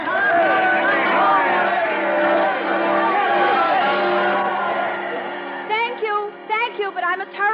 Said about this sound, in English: At San Francisco, a train is waiting to speed Miss Bly across the country. Cheering crowds gather at every station.